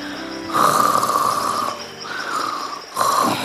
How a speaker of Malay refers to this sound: Boleh pula ikan Nemo ni tidur masa aku tengah bercakap. Siap dengkur pula tu.